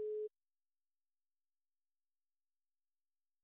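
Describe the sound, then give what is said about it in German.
A phone busy tone after an unanswered call: one short, steady electronic beep at the very start, clear, followed by silence with no further tones. “Die Menschen nehmen nicht mehr ab.”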